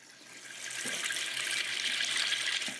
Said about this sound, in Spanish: Todos sabemos el sonido de cómo cae el agua.